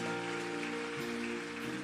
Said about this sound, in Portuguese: Pode aplaudir ao Senhor Jesus Cristo, Ele é Deus, Ele é Santo.